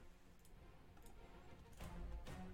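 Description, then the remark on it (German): A short clatter of dice tumbling and clicking across a surface, building up near the end and finishing with one sharp, loud knock. No one speaks. “darfst du bitte nochmal würfeln für sie in Nachtigall?”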